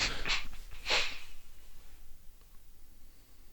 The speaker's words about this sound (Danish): Og så øh, lige tage et par dybe vejrtrækninger og prøve at glemme alle de halvfærdige projekter, der du har i rummet med dig.